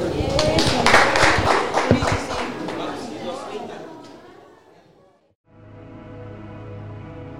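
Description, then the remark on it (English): A crowd applauds in a loud, dense burst of clapping mixed with voices, which gradually fades out. A brief silence follows, then steady music begins. “Everybody, uh, please give yourselves a round of applause.”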